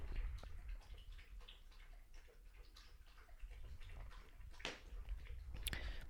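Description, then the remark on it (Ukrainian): A dog laps water from a bowl, a steady run of soft wet slurps and clicks with a couple of sharper splashes near the end. Nobody speaks. “Почекаю, коли собака поп'є води.”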